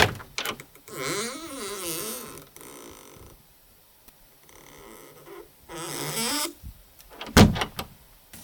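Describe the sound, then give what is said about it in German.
A creaking, groaning friction sound resonating through a wooden door, drawn out in wavering strokes with pauses between, ending in a sharper squeak and knock, fairly loud. It is made by rubbing an old shoelace, laid against the door as a resonator and held taut, between index finger and thumb. “Ein altes Senkelband. Das habe ich jetzt äh, quasi hier an die Tür ja. gelegt als Resonanzkörper und gehe mit Zeigefinger und Daumen, lassen Sie das mal los, Nehmen Sie mal hier vorne und spannen ja.”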